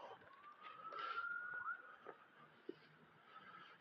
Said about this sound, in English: Oh, we got real life police sirens now.